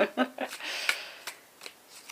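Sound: shuffling tarot cards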